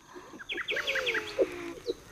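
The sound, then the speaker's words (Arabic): A small bird chirps in a quick run of bright, repeated notes, moderately loud, ending with a couple of separate tweets. No one speaks. “شوفي تبنارة طير عليك”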